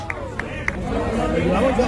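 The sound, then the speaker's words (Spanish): Football fans give a few sharp, scattered claps near the start as a man comes down to talk with them, then a dense crowd of voices chatters and murmurs loudly, overlapping. “En ese momento, ahora con estos aplausos, es cuando baja Pepe Mel para atenderlos”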